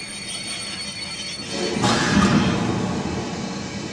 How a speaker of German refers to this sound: als der Zug endlich am Bahnhof ankam.